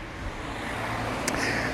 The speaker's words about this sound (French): Ah, il y a une voiture, donc je vais me pousser pour éviter d'être écrasé.